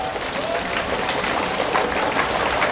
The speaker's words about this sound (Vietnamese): xin ờ, tất cả mọi người hãy ờ, dâng cao một tràng vỗ tay thật là lớn thật giòn giả